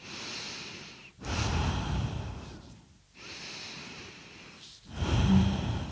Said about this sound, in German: mein Tempo ändern und vielleicht genauso tief, aber ein bisschen schneller, dynamischer atmen. Genau, das geht auch. Also ich habe immer die Möglichkeit, dass das, die Geschwindigkeit zu steuern, ja, und die, die Tiefe zu steuern.